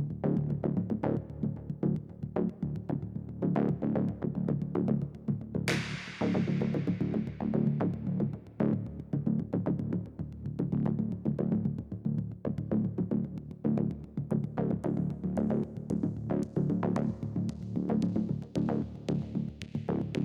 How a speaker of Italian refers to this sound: direi di ascoltare proprio un pezzo del, della colonna sonora che si chiama …